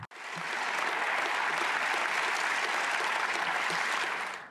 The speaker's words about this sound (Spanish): Pues ya estamos aquí con los aplausos para el señor San Juan